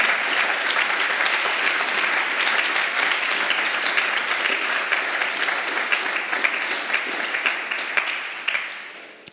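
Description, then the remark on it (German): An audience claps for the volunteers who paint and do all the work. The clapping lasts about nine seconds, a dense, even wash of many hands that stays loud throughout, with no voices heard over it. “Ja, gebt mal einen Applaus zu allen denen, die streichen, malen und alles tun.”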